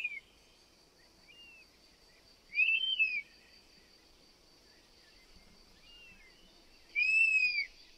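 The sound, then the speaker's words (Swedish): A European honey buzzard gives two loud, clear whistling calls a few seconds apart, with fainter whistles in between, over a steady background of buzzing insects and no talking. “Och det, det är ett visslande läte som vi kan lyssna på här.”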